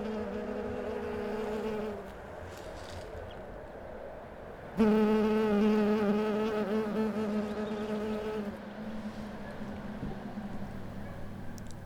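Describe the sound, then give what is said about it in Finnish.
A bumblebee buzzes steadily, a low droning hum with rich overtones that shifts in pitch as it moves, growing noticeably louder midway before easing off again. No one speaks. “Lähteä sinne luontoon ja taas sitten ne kimalaiset ja kaikki muutkin eliöt, että niillä on mahdollisuus elää siinä myös.”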